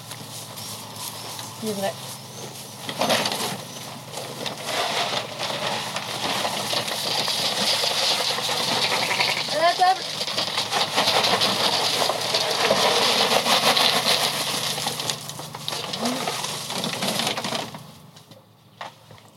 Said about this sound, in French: La personne que vous entendez nourrir ces moutons, c'est ….